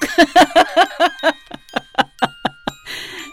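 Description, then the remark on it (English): A bell rings out to signal the end, in a quick, steady run of about a dozen bright strikes, each leaving a lingering metallic tone, followed by a brief noisy burst at the end. No one speaks. “And there's our bell.”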